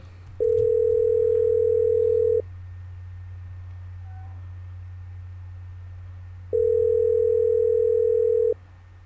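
A steady electronic ringback tone of an outgoing call sounds twice, each ring about two seconds long with a long pause between, heard clearly over a low continuous hum with no one talking.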